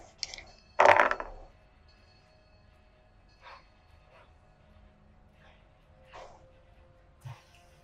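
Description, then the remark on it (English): A die hits a hard surface with a sharp clatter, then rolls and ticks a few more times, with faint, spaced taps as it stops on 19 and slowly tips over to a 1. No one speaks. “The dice was stopping on 19, and then it just slowly, slowly tipped over to a nat one.”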